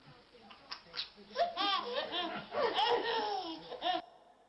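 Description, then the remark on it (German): A young child laughs joyfully in bursts of high, bubbling giggles and squeals, fairly loud, with brief breaths between the peals. “Und das erste, das klingt nach kindlicher Freude.”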